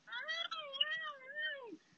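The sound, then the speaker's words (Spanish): A cat lets out one long, drawn-out yowl that wavers up and down in pitch before dropping off at the end, otherwise quiet; cats at night behind an apartment. “estos ruidos extraños de los gatos cuando hacen cosas que no dejen hacer, le traten de mal, alguien está envidioso porque quiere unirse.”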